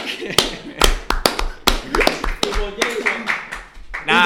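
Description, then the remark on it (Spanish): Someone claps their hands as applause in quick, irregular bursts, each smack sharp and loud, while a person keeps talking over the clapping. “Ojo, ojo, un aplauso porque este video voy a haberlo hecho toda semana.”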